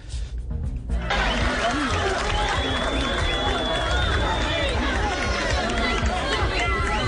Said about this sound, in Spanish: Este, este es el audio ambiente de lo que pasaba en el momento, un estadio pequeño, insisto, en el sur de la provincia de Buenos Aires.